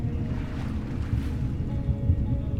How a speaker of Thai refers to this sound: คุณได้ยินเสียงคลื่นใต้ทะเล เสียงของคลื่นใต้ทะเลที่คุณได้ยิน จริงๆแล้วมันคือเสียงลมของพายุที่กำลังพัดผ่าน